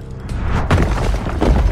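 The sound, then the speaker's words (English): Loud, rumbling booms of asteroids pummeling the young Earth billions of years ago, knocking a chunk of the planet off into space: a deep, crackling roar that swells twice in quick succession, heavy in the low end with a harsh, shattering edge and no voices. “it was pummeled by asteroids.”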